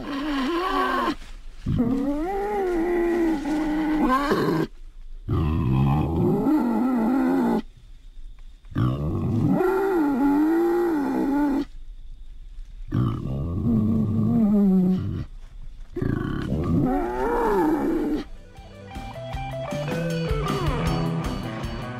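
A pig grunts and snorts in a series of loud, rough, low-pitched bursts, broken up by short silences, with no talking throughout.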